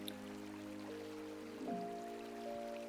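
A quiet, steady babble of a flowing stream, soft and continuous, with gentle sustained musical tones humming underneath and no voices.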